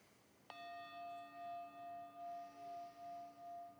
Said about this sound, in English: Hopefully, by now, when you hear the bell, you begin to salivate, thinking happily about the meditation to come.